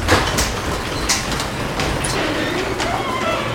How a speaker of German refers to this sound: Ja, der Kernbohrer, der nimmt einen Zylinder raus okay.